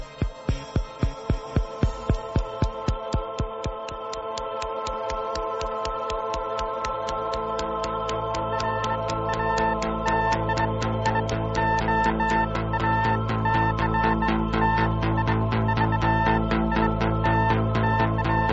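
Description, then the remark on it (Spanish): Vintage 1970s electronic synthesizer music: sharp rhythmic pulses open the piece, then a steady throbbing bass and sustained synth tones build into a dense, mechanical groove. No voices are heard. “Lo que estáis escuchando es muy especial. Es el grupo ….”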